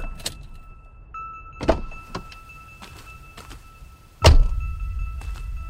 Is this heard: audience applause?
no